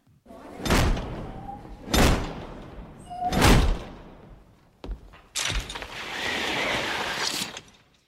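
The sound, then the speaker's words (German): A magical film sound effect of a wizard's device putting out the street lights: three sharp, whooshing clunks about a second apart, then a longer rushing, hissing sweep that fades away. No one speaks. “dieses Lichtausmacher vom Dumbledore, dieses Deluminator, glaube ich, ne? So klingt es, wenn mhm. er so das Licht aus den”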